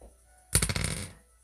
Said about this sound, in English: God, I dropped the dice again.